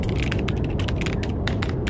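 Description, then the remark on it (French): Magnetometer and accelerometer data captured by the BepiColombo space probe, converted into sound: a dense, constant low rumble overlaid with irregular bursts of sharp, ratchet-like clicking, loud, with no voices. “C'est la sonde Pépi Colombo qui a capturé les bruits magnétiques et accéléromètres en fait le bruit des datas et les a retranscrits en son.”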